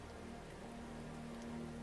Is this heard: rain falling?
yes